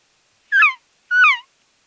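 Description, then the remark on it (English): Two short cow elk calls, each a loud, high, nasal mew that slides downward in pitch, separated by a brief pause, with nothing else audible around them. “So that's a cow saying, "Hey, I'm over here."”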